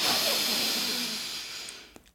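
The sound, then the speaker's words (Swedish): A long, deep breath drawn in during a breathing exercise, heard as a steady airy hiss that slowly fades over about two seconds, with a faint low tone underneath and no talking. “Så faktiskt verkligen att ta det här djupa inandetaget också verkligen”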